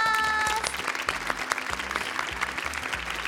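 A group of junior high school students claps in sustained, dense applause for a few seconds at their school during a Radio Kansai broadcast, with a brief tonal chime at the start and a rhythmic music bed playing underneath.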